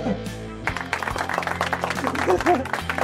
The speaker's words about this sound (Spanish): Es el caso de este audio. Un aplauso que me ha salido.